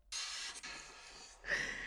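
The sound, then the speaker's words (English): A man in a video, chopping a large log, breathes heavily in long airy exhales and inhales, with a louder, sharper breath near the end. No one speaks. “He's not speaking, he's just breathing.”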